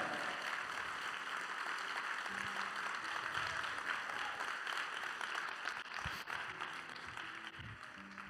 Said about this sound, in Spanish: Vamos, darle un aplauso fuerte. Dale un aplauso fuerte.